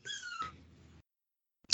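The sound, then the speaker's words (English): A female puppy in her crate gives a short, high-pitched whine, followed by some soft shuffling, a pause of silence, and then a brief sharp yelp at the end. Fairly quiet. “She's unhappy about being in her crate. This is my new puppy.”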